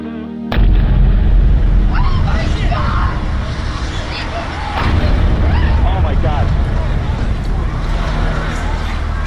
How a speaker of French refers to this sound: looks like a second plane. That just exploded. I just saw another plane coming in from the side.